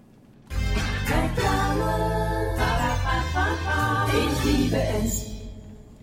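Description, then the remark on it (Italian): A short, catchy advertising jingle played from a CD player starts abruptly and plays loud for about five seconds with full, bright instrumentation, then cuts off, leaving a faint hiss. No one talks. “Abbiamo deciso di creare una traccia audio che, proprio come lo slogan, è immediatamente riconoscibile”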